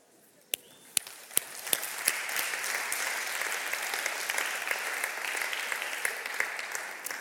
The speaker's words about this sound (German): Dieser Applaus gilt allen, die Teil dieser Geschichte gewesen sind.